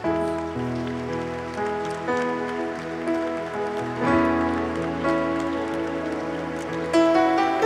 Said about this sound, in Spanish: Vamos, apláudele fuerte. Fuerte.